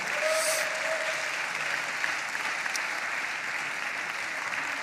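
An audience applauds steadily, cheering on people who are getting baptized as they walk out, a dense wash of clapping that holds at an even, fairly loud level throughout, with a brief high whistle-like cheer near the start.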